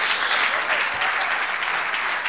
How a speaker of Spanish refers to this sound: A ver, démosle un aplauso al Señor. Gloria a Dios.